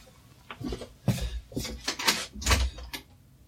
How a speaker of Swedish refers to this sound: Nu är det någon som knackar. Då gör vi en liten paus.